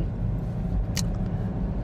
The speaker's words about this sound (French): Qu'est-ce que c'est que cette voiture